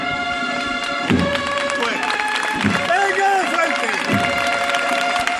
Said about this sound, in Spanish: Y las palmas, la emoción, se desborda en la Macarena.